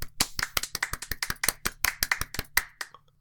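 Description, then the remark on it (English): Hands clap quickly and repeatedly right next to the microphone to celebrate the completion of a university thesis, about fifteen sharp, loud claps in a brisk, steady burst of applause that stops abruptly, with no talking. “I don't know if you can clap on a microphone.”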